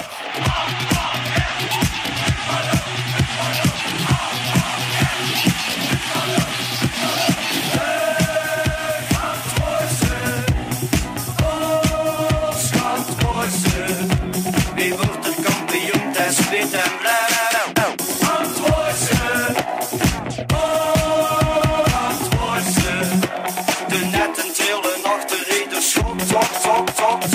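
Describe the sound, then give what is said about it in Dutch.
A loud, continuous dance edit of a chant-style football stadium anthem, made for the opening party of the Gelamco Arena in 2013, driven by a steady thumping beat with layered synths and brief breakdowns where the bass drops out, playing with no talking over it. “En ze hebben een edit gemaakt van dat nummer.”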